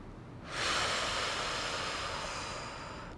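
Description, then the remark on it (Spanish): A long, steady exhale during a guided calming meditation, following a strong inhale: a soft airy rush of breath that starts after a brief pause and holds evenly for nearly three seconds, slowly tapering. No talking over it. “Exhala.”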